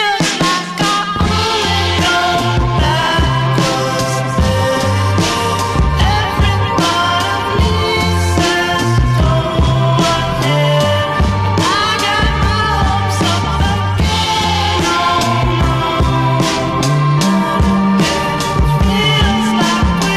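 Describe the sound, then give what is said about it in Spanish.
A recorded song plays continuously at a steady, loud level, with a full band sound: deep bass, sustained melodic lines and bright cymbal-like accents throughout, with no talking over it. “donde tiene las rolitas que se llama”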